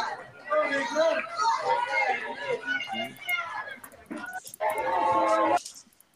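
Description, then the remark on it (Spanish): A dog barks and whimpers in a few harmonic bursts, with one longer sustained yelp near the end, while people chatter in the background. “Justamente acá tienen a los perritos, justo ladra el fútbol.”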